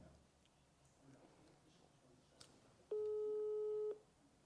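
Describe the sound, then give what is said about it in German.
A single steady telephone ringing tone of an outgoing call waiting to be answered, lasting about a second, loud and even-pitched, rising clearly above a low background murmur before cutting off. “Es hat jetzt schon öfters geklingelt, das ist auch wichtig.”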